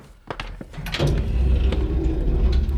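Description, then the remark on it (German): A few clicks and clunks of an elevator door closing, then a loud, steady low mechanical rumble as the express car starts its ride and keeps humming, with no voices. “zeige Ihnen etwas in den tief tief etagen Hier ist der Rapidfahrstuhl.”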